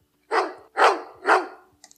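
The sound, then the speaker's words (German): A dog barks three times in a quick, even rhythm, each bark loud, followed by a brief faint rustle and then quiet. “Wir haben hier zwei Marker drin, die wir benutzen können, nämlich das und und das und verbildern wir mit einem Hund, mit dem Rantanplan von Lucky Luke, um genau zu sein.”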